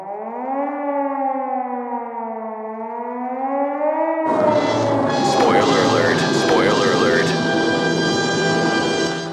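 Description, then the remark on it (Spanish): A short produced radio jingle introducing a segment: a wavering, siren-like tone holds for about four seconds, then gives way to a loud, dense burst of music and sound effects that runs to the end. “solamente voy a mandar la cuña para que arranque el dato del chato”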